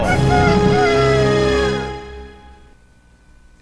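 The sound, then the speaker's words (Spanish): A loud rooster crow rings out once, a long harsh call that holds for nearly two seconds before trailing off into a fading echo. “Eso ah. es el gallo, papi.”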